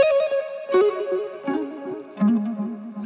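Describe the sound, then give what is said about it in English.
A processed electric guitar plays a slow, descending melodic line in G flat major pentatonic, the same part played twice and panned left and right, with an amp simulator echo preset, saturation and an RC20 adding wobble, giving thick, saturated tone and a chorused, echoing shimmer, sustained notes sliding between pitches, no voices. “I started off with Amp Simulator's Echo Stack preset and some decapitator saturation, and played the same guitar part twice, panning one left and the other to the right.”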